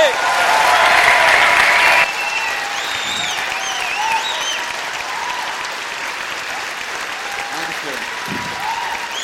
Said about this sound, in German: Und jetzt würde ich sagen, packen wir mal so einen richtig heftigen Stepcon-Applaus aus. Come on, give it up for Pastor Harrison Conley.